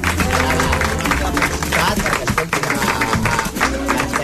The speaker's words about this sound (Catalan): Escolta, deixa'ns que t'aplaudim. Bravo, bravo. bravo.